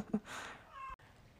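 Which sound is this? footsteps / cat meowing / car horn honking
cat meowing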